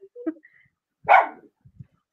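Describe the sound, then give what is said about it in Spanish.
A dog lets out a single sharp, loud bark, preceded by a brief whiny yip and followed by a couple of faint low huffs, with no one talking. “Perrito también quiere ser protagonista.”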